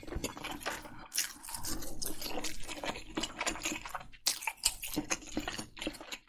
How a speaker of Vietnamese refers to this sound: Ví dụ như tiếng nhai nhóp nhép phát ra khi bạn đang nhai đồ ăn gần một chiếc mic chẳng hạn.